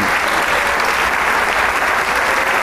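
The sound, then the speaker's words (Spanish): Sustained applause from a large audience fills the Teatro Isabel Martínez as the maestro comes out once more, thanking them with palms together, a dense, steady wash of clapping hands that stays loud and even throughout, with no voices standing out. “el alimento del aplauso siempre motiva al músico.”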